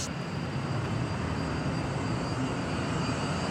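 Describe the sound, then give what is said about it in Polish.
A light aircraft taxis on an airfield while a marshaller stands by to direct it, its engine a steady, loud droning roar with a faint high whine that holds constant throughout, with no voices. “kołuje, będzie kołował, bo już o, stoi marszałek.”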